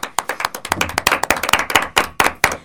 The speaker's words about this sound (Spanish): Y ahora estamos acá en San Ignacio. Fiestas patronales para... para, claro, sí. Muy bien, sí, sí, un aplauso para San Ignacio.